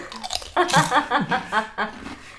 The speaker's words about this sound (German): Ich muss nur kurz Chips essen, warte.